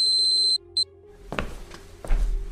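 An alarm clock in a room rings to announce that it is time for school, with a rapid string of high electronic beeps for about half a second, gives one more short burst, then stops and is followed by a few dull knocks and rustling.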